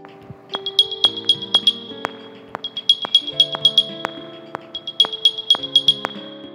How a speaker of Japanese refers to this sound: 新機能といえばどこかに iPod Pro を置き忘れた時に探すアプリを使って当たりをつけてケースから音を出して場所を知らせる機能こんな音が鳴ります